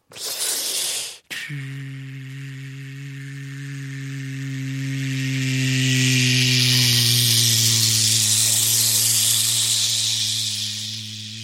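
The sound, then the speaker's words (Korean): A voice imitates a car passing over a wet road on a rainy day: a short hissy burst, then a steady droning hum beneath a swelling, spraying hiss of splashing water that grows louder and lingers. “아까 들려드렸던 것처럼 이러면 비가 오는 날에는 아, 비, 비, 주적주적. 예, 물이 좀 어, 어 튀죠.”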